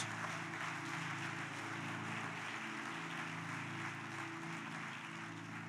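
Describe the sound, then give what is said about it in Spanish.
An audience applauds for Jesus in a steady, dense wash of clapping that holds evenly for several seconds, with sustained low musical tones humming underneath and no one speaking. “Dele un aplauso a mi Señor Jesús.”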